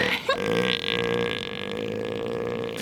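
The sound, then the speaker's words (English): A loud, deep, belching rumble from fluffing elephant seals, sustained for nearly three seconds with a rough, pulsing, guttural texture and no talking. “And fluffing elephant seals.”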